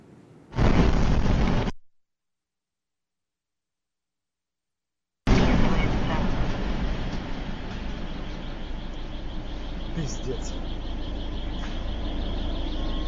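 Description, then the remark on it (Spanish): A loud explosion from bombing in Kyiv, Ukraine, bursts out, then a sudden cut to silence, followed by a long, heavy roar of blast noise and rumbling debris that fades slowly, with no voices. “Bombardeos eh, eh, además explosiones, todo esto en la capital de Ucrania, en Kiev, en el octavo día de invasión.”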